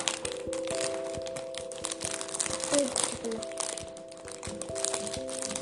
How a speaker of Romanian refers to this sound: În același timp, panoul de bord al lui Pit arăta că nivelul apei creștea, metalul trosnea și gemea sub presiunea apei, dar submarinul rezista.